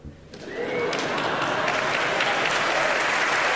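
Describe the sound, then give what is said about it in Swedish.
A large audience at the 2016 Polar Music Prize ceremony bursts into applause during a songwriter's acceptance speech, building quickly from a quiet start into a sustained, dense wash of clapping that holds steady and loud throughout. “Och vi ska nu till Polarprisutdelningen 2016 där … tacktal drog ner applådåskor när han berättade att segerkonceptet för att göra en bra poplåt det är att stjäla från de bästa.”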